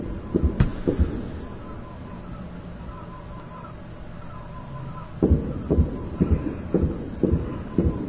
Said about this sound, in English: Even though you hear the gunshots, and as Randy Sutton has been educating us tonight, uh, that is a fully automatic weapon